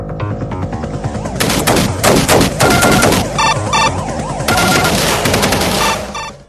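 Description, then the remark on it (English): Rapid, harsh bursts of retro video game gunfire from the Sega Genesis sound chip, in the intro to a game's first level, loud and nearly continuous, with warbling, siren-like electronic tones weaving underneath and no voices. “Yeah, uh, all the sound effects are still just the Genesis sound chip.”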